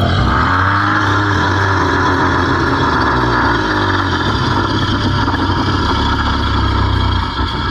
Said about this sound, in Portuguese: E vocês ouvem um grande rugido.